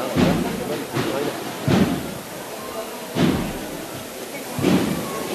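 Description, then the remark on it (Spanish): Slow, heavy procession drum beats thud at spaced, solemn intervals, each a deep booming hit over a steady murmur of background noise and voices, as the Cristo del Cachorro procession advances. “El Cristo de el cachorro que avanza de frente y ahora el tambor parece que suena a luto, a duelo, a recuerdo.”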